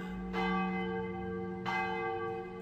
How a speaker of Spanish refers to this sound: gente cuenta que hace mucho tiempo, cuando las campanas de la catedral sonaban por las noches, todos los habitantes de la Ciudad de México se ocultaban en sus casas, temerosos se encerraban a piedra y lodo.